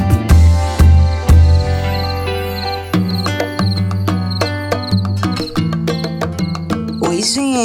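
Crickets chirp in rapid, high-pitched pulses over an upbeat music track with deep bass and sharp percussive hits. There is no talking.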